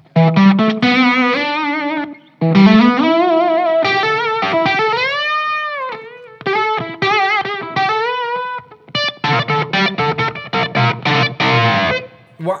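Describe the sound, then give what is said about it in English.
An electric guitar played through a Jan Ray overdrive pedal, warm and slightly gritty, with sustained bent notes and short choppy phrases, loud and continuous with brief pauses, no talking. “tone. I like it. warm with the Jan Ray.”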